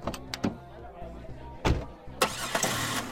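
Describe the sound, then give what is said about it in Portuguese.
A few sharp clicks and clunks, then a car engine cranks and catches, settling into a steady, fairly loud idle. “Eu entro no carro”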